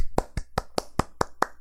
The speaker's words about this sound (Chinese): 那还是呢，首先呢，我们还是要感谢他哦，拍手，